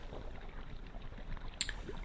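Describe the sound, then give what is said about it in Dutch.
Soft Mediterranean Sea waves lap and slosh in a steady, quiet wash of water, with one brief, brighter splash near the end. No voices are heard. “En je oren zijn onder water en je hoort de geluiden van de golven, van de oceaan, van de Middellandse Zee”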